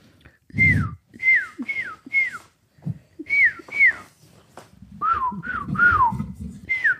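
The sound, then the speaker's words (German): Someone whistles a short tune, a run of clear notes that mostly slide downward, with breathy puffs between phrases and a slightly lower-pitched passage near the end. “Kannst du richtig gut pfeifen?”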